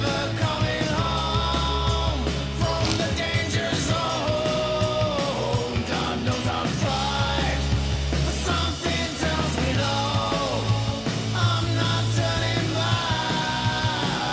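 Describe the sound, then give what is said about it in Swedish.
A heavy metal band's demo recording plays loud and dense throughout, with pounding low end, distorted guitars and raw, yelled vocals, all captured with a rough, lo-fi recording quality. “Och eh, heavy metal-band utan bra sångare eller karismatisk sångare eller sångerska uh, går fet bort faktiskt.”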